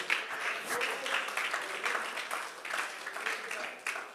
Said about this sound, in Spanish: Uno que sea testigo de esa multiplicación, que le dé la gloria y le aplauda con júbilo en esta hora.